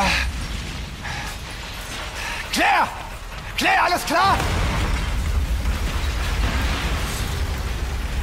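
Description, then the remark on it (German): A truck explosion blows the truck into a thousand pieces, giving way to a heavy, sustained low rumble filling the background, with mechanical clatter, just after a man shouts out urgently twice. “Eine Explosion zerteilte den LKW in tausend Stücke und schleuderte Leon gegen einen anderen Wagen.”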